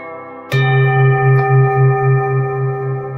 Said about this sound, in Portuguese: Esse é um sino tibetano. Eu trouxe lá do Nepal. Esse sino rústico, feito com 11 ligas metálicas, ele tem uma vibração de cura. Que o som desse sino ele possa massagear as suas células.